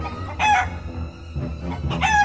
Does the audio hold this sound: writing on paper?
no